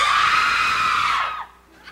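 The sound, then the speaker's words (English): A crowd at a rock performance screams and cheers loudly and steadily for over a second, then falls silent all at once on cue from the performer, the noise cutting off abruptly into near quiet. “how he controls the crowd, yeah, yeah, gets them to cheer and gets them to shut up like on a dime.”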